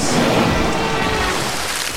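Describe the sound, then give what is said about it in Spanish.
Steady, dense rain pours down with a constant loud hiss and a low rumbling undertone, like a thunderstorm, holding even for the whole two seconds with no voices. “¡Me mojó! La estación de invierno te salpica de alegría con lluvia de buenos programas.”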